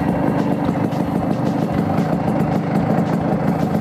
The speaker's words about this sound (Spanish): Esto que escucháis, esto es una Vespa.